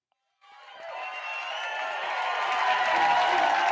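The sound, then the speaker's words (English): After a brief silence, a crowd erupts into sustained cheering at the start of a live recording of a song, a dense roar of many voices that builds steadily louder and keeps going to the end. “Well, there's cheering, so I'm a little worried.”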